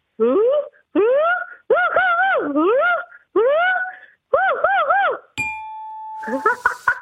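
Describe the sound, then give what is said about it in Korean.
A person's voice imitates a hyena barking, letting out about six loud, rising whooping calls in quick succession, followed by a bright chime-like ding and a brief noisy burst. “하이에나가 짖는 소리입니다.”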